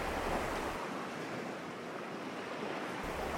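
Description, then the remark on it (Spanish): Steady roar of ocean surf washing onto the shore, a broad continuous wash of noise with no voices, the waves evenly loud throughout. “Conocer el mar.”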